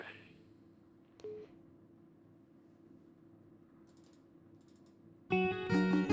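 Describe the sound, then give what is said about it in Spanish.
A few sparse, soft clicks of buttons on a broadcast console over a steady low electrical hum, with no one talking, before a sudden loud burst of tonal sound cuts in near the end. “Y están los botones un poco rebeldes, ¿eh? No quería entrar este tema,”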